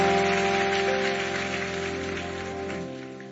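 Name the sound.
audience applauding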